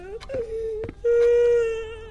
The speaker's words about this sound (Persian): همینجوری آروم داشت گریه میکرد شونه هاش تکون میخورد فکر کنم کلا هشت نه سالش بود